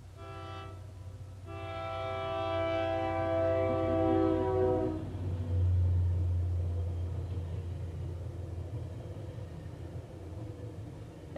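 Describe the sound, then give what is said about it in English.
A Tri-Rail commuter train's horn blares in a long, steady chord for several seconds in the early morning before sunrise, then cuts off as the heavy rumble of the train rolls past and gradually fades. “And there goes the tri rail.”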